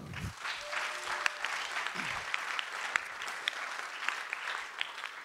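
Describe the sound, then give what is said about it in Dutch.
Audience applause: a steady wash of many hands clapping, dense and sustained for several seconds, with sharper individual claps popping out above the crackling texture. “Daar mag voor geklapt worden.”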